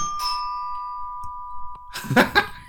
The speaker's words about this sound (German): Hat man die, die Klingel ist auch noch mit drin.